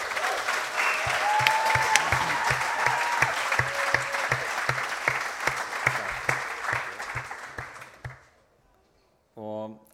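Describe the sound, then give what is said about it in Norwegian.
A crowd applauds steadily for about eight seconds, giving applause to God, with dense clapping and a few cheers, then it fades out, followed by a short voice after a brief silence. “Kan vi ikke bare gi Gud en applaus, rett og slett?”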